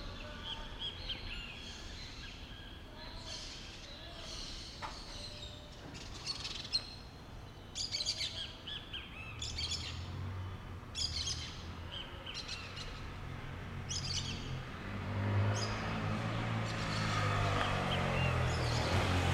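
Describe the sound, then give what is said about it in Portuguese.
A ruddy ground dove calls repeatedly in the background at Cristina com Lavras, a steady series of soft, evenly spaced notes, while the low rumble of a car swells toward the end. “Antes desse carro parar, a gente estava ouvindo uma rolinha ao fundo.”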